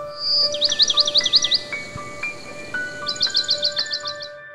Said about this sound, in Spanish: Caperucita verde Camina deprisa escuchando el canto de los pájaros.